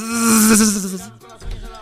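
A loud, steady buzzing drone of a large swarm of bees from a hive flying in, continuous for about a second, then fading out into quieter, uneven buzzing sounds.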